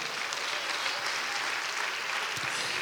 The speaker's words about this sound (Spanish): ¿Cuántos dicen amén? Y le dan un aplauso a Dios, hermano, a su nombre, gloria.